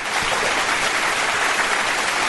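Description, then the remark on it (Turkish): A crowd claps steadily, a dense, even wash of many hands with no distinct beats, holding at a constant loud level without any talking over it. “Evet alkış. bir alkış alalım evet.”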